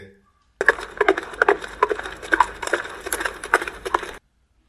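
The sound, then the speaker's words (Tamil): Rhythmic clattering hoofbeats of a horse carrying a warrior, approaching at speed along a quiet riverbank, a steady run of sharp knocks at close range, starting abruptly and continuing for several seconds before cutting off. “அப்பொழுது அங்கே குதிரையின் காலடி ஓசை கேட்டது அந்த நதி தீரத்தின் ஆழ்ந்த அமைதியை கலைத்துக்கொண்டு குதிரை குளம்படியின் சத்தம் இப்பொழுது சமீபத்தில் கேட்கத் தொடங்கியது”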